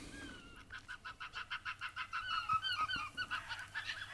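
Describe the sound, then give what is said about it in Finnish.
An arctic fox calls in a fast, steady series of sharp, yapping barks, about a dozen in a row, clear with no one talking. “Tätä ääntä ei ole moni kuullut suomalaisessa luonnossa.”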